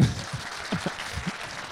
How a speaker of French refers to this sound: Ah, non, non, à non, j'appuie là-dessus puis ça ah, applaudit.